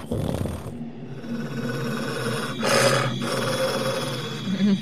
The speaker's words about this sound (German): Aber ihr hört auch ein leises Knurren.